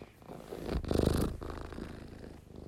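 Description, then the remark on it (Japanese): A cat purrs steadily, a soft rumbling pulse that swells louder in the middle before settling back to a gentle, continuous drone. “ゴロゴロ言うてますけれども。”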